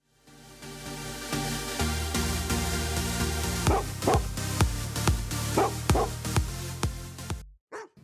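A pack of sled dogs, the swing dogs of a team making turns on the trail, barks and yips excitedly, a steady clamor of overlapping voices with sharp, repeated yelps standing out near the end, loud, no talking.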